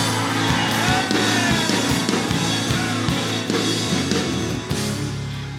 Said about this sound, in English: Oh, come on, somebody. Scream in this place.